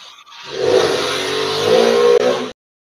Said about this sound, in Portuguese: Depois dessa interrupção da moto, vamos para mais um duelo.